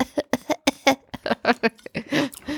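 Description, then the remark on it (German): A quick run of about a dozen short, voiced, fairly loud coughs, coming in a choppy burst that ends in a longer, hoarse cough, with no talking. “Er hustet nämlich ab und zu und ist heißer.”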